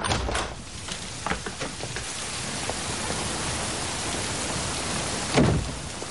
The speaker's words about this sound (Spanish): Llueve intensamente y agarra su maleta colocándola sobre su cabeza para cubrirse